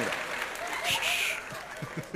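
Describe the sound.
A burst of audience applause, a dense wash of clapping filling the short clip, with some voices and scattered low thumps mixed in underneath.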